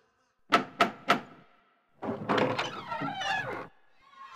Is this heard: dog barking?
no